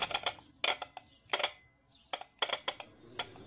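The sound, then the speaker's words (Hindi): Cups and spoons clink as hot coffee is made at home: a series of bright, sharp metallic and ceramic taps in small irregular clusters, fairly crisp, with no voices. “घर पहुंचते ही मम्मी ने दादी के लिए गर्मा गर्म कॉफी बनाई”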